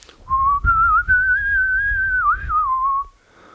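A person whistles a short melodic phrase of a song, a single clear sustained tone gliding gently up and down for about three seconds, fairly loud, with a low rumble of background noise underneath.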